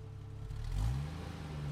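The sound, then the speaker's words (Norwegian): The engine of a somewhat worn car revs up and accelerates in Oslo, its low hum rising in pitch and loudness before settling into a steady drone, with no voices. “Vi setter oss i bilen i Oslo, lettere naive over reisen som ligger foran oss.”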